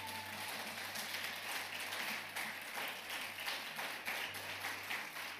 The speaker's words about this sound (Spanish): ¿Cuántos tienen ganas de darle otro aplauso al Señor? Yo tengo muchas ganas.